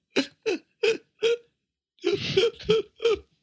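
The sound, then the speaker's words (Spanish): A voice imitates the gasping, seal-like sobs of a woman crying beside the speaker while watching a movie: four short, evenly spaced hiccuping bursts, a brief pause, then a rougher, noisier run of similar gasps, with no other talk. “Ella era la foca, güey. Y está casi, güey, berreando.”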